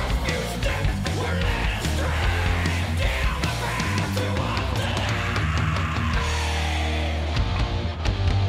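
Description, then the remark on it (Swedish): A man screams hoarsely and aggressively over loud, dense music with a pounding low end in the intro of a recorded song, his raw yell carrying through the full stretch without pause. “gillar att han skriker.”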